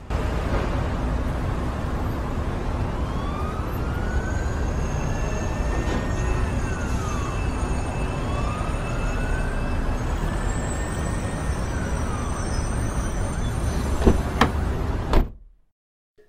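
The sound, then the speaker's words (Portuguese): Steady roar of heavy city traffic on Avenida Paulista fills the scene while a siren wails up and down, its rising and falling tone sweeping across the din before everything cuts off abruptly. “pegar um ecar para a Avenida Paulista, onde marcou com seu tio o ponto de encontro para uma nova jornada.”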